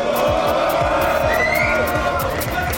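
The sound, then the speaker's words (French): A large audience at a live show cheers and shouts loudly and continuously for a performer being introduced on stage, a dense wall of crowd noise with scattered claps and whoops throughout, sustained for the whole stretch. “Je veux du bruit pour Monsieur Frenetic, s'il vous plaît”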